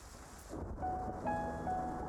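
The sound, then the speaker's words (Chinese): Steady rain hisses throughout on a thunderstorm night, soon joined by a deep, swelling rumble of thunder underneath, with a few faint sustained tones ringing softly over the downpour; no one speaks. “又是一个雷雨夜”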